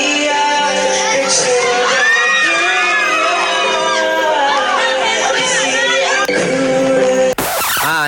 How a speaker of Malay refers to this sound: Tu orang menjerit pasal suara dia ke? Orang menjerit tengok muka dia ke? Kenapa tu? Kenapa orang, tu? Kenapa tu? Orang memang dah menjerit dengan dia.